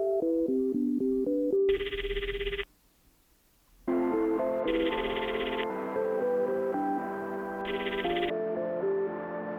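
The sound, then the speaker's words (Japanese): A melodic electronic telephone ringtone plays a repeating tune of bright, stepping notes, pauses briefly for about a second, then resumes the same looping melody. It is fairly loud, with no one talking. “前から電話なんて珍しいな”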